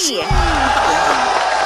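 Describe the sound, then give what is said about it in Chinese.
A loud burst of crowd cheering, with whoops and yells rising over a dense, continuous wash of noise that holds steady for under two seconds. “那你们看比照大盘这样子，是不是要给我掌声鼓励？”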